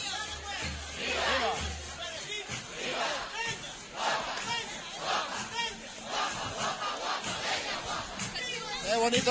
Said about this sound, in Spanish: Aquí estamos entre medio los peregrinos y las hermandades, los representantes de la hermandad Cristina gritando Huelva, Huelva, al paso de la hermandad de Huelva.